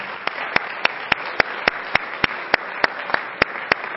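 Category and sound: crowd, audience clapping hands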